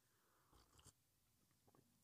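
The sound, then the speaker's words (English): Someone quietly sips coffee, a couple of soft, airy slurps followed by faint mouth noises, then one short, sharper sound right at the end. No one talks. “Sipping on some coffee.”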